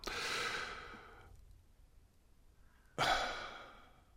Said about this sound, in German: Atmen. Am Ende atmen.